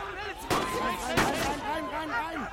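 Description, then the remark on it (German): Two sharp pistol shots, fired by the Solaras, crack about half a second apart, loud and abrupt, over a continuous wash of wavering voices that rise and fall throughout. “Die Solaras feuerten Pistolenschüsse auf uns ab.”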